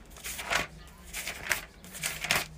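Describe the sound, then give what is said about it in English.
Paper rustling and crinkling as pages of a notebook of notes are turned, with several soft swishing bursts at an uneven rhythm, fairly quiet, with no talking. “y'all hear me turning pages?”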